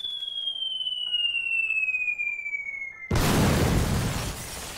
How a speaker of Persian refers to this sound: صدای بلند راکت آمد